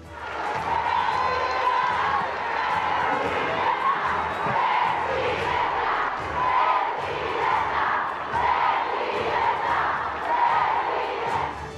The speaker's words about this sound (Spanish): La mandataria fue vitoreada y llamada presidenta por las asistentes, sus homólogas y legisladoras en varias ocasiones. ¡Alerta! ¡Alerta! ¡México tendrá presidenta!